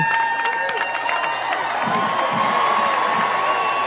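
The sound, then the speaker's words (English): A large crowd claps and cheers at a steady, fairly loud level at the Air Force Academy in Colorado Springs, where the US president was speaking, with sharp hand claps standing out early and a continuous wash of murmuring voices throughout. “Here he is, and uh, people are clapping.”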